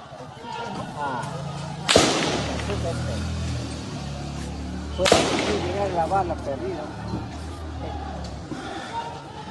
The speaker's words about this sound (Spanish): Bueno, su casa ha sido atacada en las últimas horas y él ha tenido que defenderse literalmente a balazos. Escuche usted, por favor.